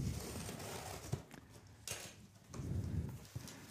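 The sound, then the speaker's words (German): A box cutter (carpet knife) slicing open a package, fairly quiet: short scratchy cuts and rustles in an irregular rhythm, with a longer dragging rasp near the end. “Oh, da kommt der gleich mit, mit dem Teppichmesser mit so einem gefährlichen Teil.”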